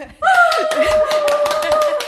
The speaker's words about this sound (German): Erstmal klatschen wir.